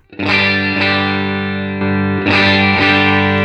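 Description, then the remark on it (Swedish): A loud electric guitar, amp volume set to 12 o'clock, strums a handful of sustained chords through a gritty, slightly crunchy amp tone with no overdrive pedal, each chord ringing into the next, with no voices. “Eh, vi drar upp då, som jag sa, som jag använder, volymen då till klockan 12 eh, då. Alltså du, mer än innan då. Då mm. låter det så här utan”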